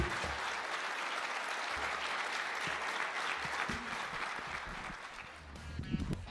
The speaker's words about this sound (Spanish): Y había gente que lo aplaudía.